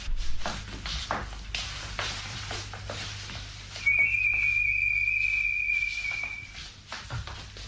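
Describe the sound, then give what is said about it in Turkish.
A single long, steady human whistle, given after dark as the signal to start moving, held on one high note for about three seconds, standing out clearly over soft tapping, shuffling movement and a low background hum. “Ben ıslık çalınca harekete geçeceğiz.”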